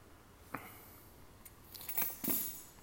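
Keys being dropped: a single sharp click, then a short burst of bright, metallic jingling and clattering that settles within about a second. No one speaks.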